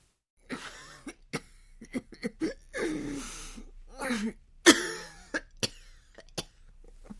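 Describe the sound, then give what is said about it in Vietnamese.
A woman in a dark inner room gives harsh, racking coughs in an irregular series, one especially loud hack near the middle, with ragged, rapid breaths and wheezy gasps filling the gaps between them. “nghe vọng ra tiếng thở gấp và tiếng ho như xé phổi của vợ ưng ô”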